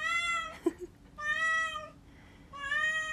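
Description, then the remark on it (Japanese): A rescue cat meows three times in a row, each call long and drawn out with a clear harmonic tone, fairly loud, with a brief soft thump between the first two. “うちの猫はね保護猫なんですけど1匹で歩いてたところを引かれそうになって引きそうになった人がね保護してたのをもらってきたんですけどなんかいろいろ怖い思いしたのかな。”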